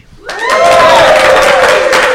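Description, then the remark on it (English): A loud burst of cheering and applause from a live audience at Midsummer Scream in Long Beach, California starts abruptly and sustains, with whoops and shouts riding over dense clapping, filling the space for a couple of seconds. “that doesn't deserve a applause.”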